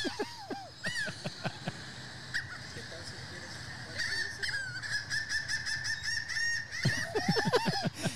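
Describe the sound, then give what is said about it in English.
Seagull calls played from a phone squawk in repeated harsh, wavering calls, clustered in bursts at the start and again near the end, with a thinner sustained cry and faint background noise in between. “Why the hell are there seagulls right now?”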